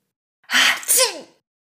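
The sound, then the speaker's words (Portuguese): Several people sneeze together at once in a loud burst, a breathy rush followed by a sharp voiced snap, lasting about a second with no talking around it, caused by a huge cloud of red powder. “Uma enorme nuvem de pó vermelho se formou e elas espirraram todas juntas de uma vez.”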